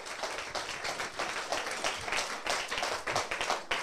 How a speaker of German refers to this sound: dein Applaus.